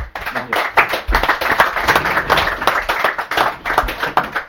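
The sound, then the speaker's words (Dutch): A crowd applauds steadily, many hands clapping in a dense, loud patter with a few sharper individual claps standing out, sustained for several seconds with no talking. “En eh, ik denk ook dit verdient weer een mooi applaus.”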